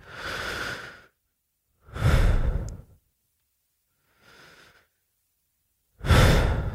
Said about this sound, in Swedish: Men för att bara mjukstarta sin meditation så kan man den första minuten bara jobba med djupa andetag. Djupa andetag sänker stressen, det sänker blodtrycket. Jobba med djupa andetag.